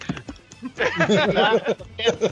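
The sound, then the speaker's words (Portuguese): Rapid clicking of keys on a computer keyboard, loud at first and then continuing under a man's voice as he talks over the fast typing. “Pô, quem é, é que tá cara... digitando feito um animal aí?”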